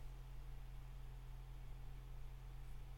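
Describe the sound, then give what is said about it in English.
Electric fans drone steadily in the background, a constant low hum layered with soft airy hiss that never changes in level. Fairly quiet, with no voices or other sounds. “If you can hear fans in the background, I do apologize”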